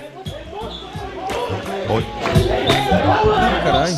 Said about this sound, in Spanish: Empujones, peleas, gente de seguridad y civiles inclusive dándose golpes adentro de la tienda Apple.